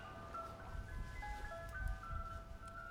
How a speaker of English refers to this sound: Ice cream truck. You'd order that? No. it's on PCH. I'm surprised you can hear it here. I have the same problem, but next to my house. Really? Yeah. That's crazy. That really carries. But at least this one has a nice melody.